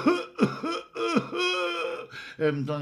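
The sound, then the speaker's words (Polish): A voice lets out a quick run of small, throaty coughs, four or five voiced bursts in an uneven rhythm, with no other sounds around them. “A tutaj co to za Y, y, jakiś kaszelek.”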